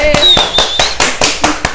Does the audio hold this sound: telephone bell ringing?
no